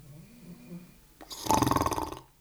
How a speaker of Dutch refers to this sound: Maar het ik hoor de hond snurken, dat is eigenlijk al een toe-eigening van hetgeen wat daarvoor gebeurt.